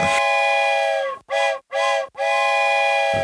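A loud steam train whistle blows in four blasts: a long opening wail, two short toots, then another long sustained blast, with rich harmonic chord tones and no talking.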